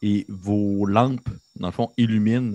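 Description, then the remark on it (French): A steady, high insect drone, like crickets in an exotic forest, with birds, runs faintly through the background while a person talks over it in the foreground. “T'entends, dans le fond, euh, comme de la forêt. T'entends des insectes, t'entends des oiseaux.”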